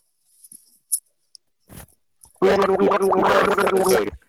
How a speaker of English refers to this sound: I'll do mouthwash.